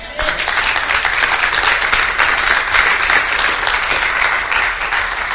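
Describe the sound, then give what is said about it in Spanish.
An audience applauds steadily for about five seconds, a dense, even wash of many hands clapping at a constant loudness with no voices rising above it. “Un aplauso.”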